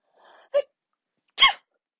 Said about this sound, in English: And, oh, I'm going to sneeze. Oh.